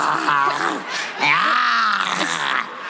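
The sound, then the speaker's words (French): A person imitates a tiger's growl with two loud, drawn-out vocal rumbles that rise and fall in pitch, sounding strained and throaty, with a brief pause between them. “Ouais, c'est ça, en, en mode tigre.”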